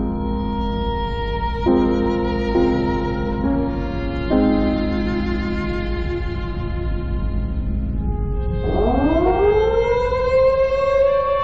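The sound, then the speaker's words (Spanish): Air raid sirens wail steadily and loudly at dawn, their sustained tones stepping between pitches before one winds up in a rising sweep near the end. No voices are heard. “Rompen entonces el alba las vibraciones alarmantes de las sirenas.”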